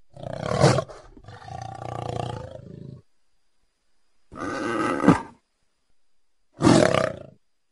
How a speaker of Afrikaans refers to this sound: waar die die luiperd baie kleiner is maar hy het ook 'n redelike 'n groot stem hy blaf meer om dit so te stel